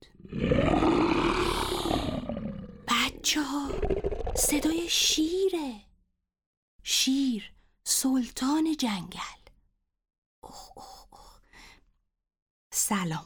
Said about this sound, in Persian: آقا شیره منو نخوری